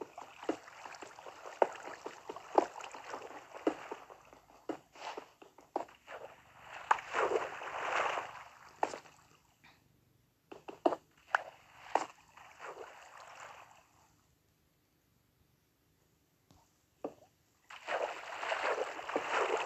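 Repeated splashing and sloshing water strokes in uneven bursts as a video game character swims, trying to swim upward through water, with short pauses and a quiet gap before the splashing resumes. No one speaks.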